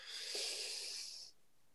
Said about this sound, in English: And the first B is breathing. And the breathing that I teach is called a four by four. So you breathe in for a count of four